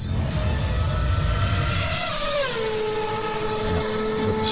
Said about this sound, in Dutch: ook weer zo mooi gemaakt dit, een bruggetje.